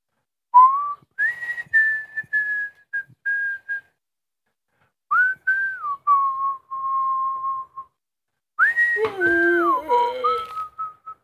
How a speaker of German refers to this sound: ich muss kurz entertainen. Ja. Ich pfeife ein Lied so lange.